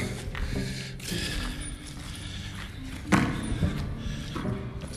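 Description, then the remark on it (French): A ball bounces with a few dull thuds at irregular intervals in an old mine tunnel with a little echo, over a steady background hiss, with wind. “C'est la balle que vous entendez.”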